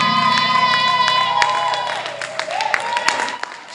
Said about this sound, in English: Open your mouth and lift up your hands. Jump on your feet. I want to see you clap your hands. Open up your mouth and give them a shout of praise.